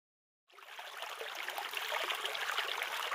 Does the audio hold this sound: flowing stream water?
yes